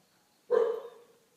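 A single sharp dog bark rings out, clear, its tail fading over about half a second with no talking around it.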